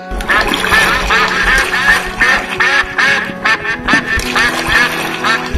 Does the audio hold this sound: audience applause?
no